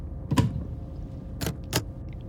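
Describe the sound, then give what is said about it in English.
An airplane lavatory door on a transatlantic flight shuts with a soft thud, followed by two quick, sharp mechanical clicks of its lock being turned, against a low background hum. “I close and lock the door behind me.”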